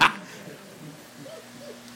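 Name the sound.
dog barking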